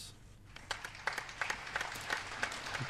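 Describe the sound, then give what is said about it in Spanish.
Light applause: a few hands clapping in an uneven, scattered rhythm, sharp individual claps standing out over a steady low hiss for about three seconds. “Ah, aplausos.”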